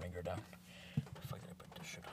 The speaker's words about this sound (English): I hate that you always hear your keyboard clicks on, bro. That's like boomer shit.